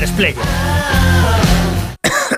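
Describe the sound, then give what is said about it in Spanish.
A person coughs repeatedly in a loud run of harsh, raspy hacks, three or four in quick succession, cutting off abruptly near the end. “¿Cansado de toser?”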